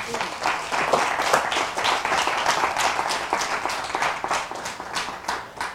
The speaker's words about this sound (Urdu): خدا ان کے لیے زوردار تالیاں بجائیں